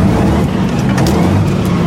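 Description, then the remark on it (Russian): Heavy engines of two tanks rumble steadily and loudly as tank crews take their places, a thick low-pitched drone with a rough mechanical texture that holds constant throughout, with no voices present. “Два танка, танкисты занимают свои места.”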